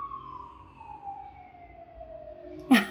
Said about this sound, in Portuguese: Passa ambulância, é uma beleza.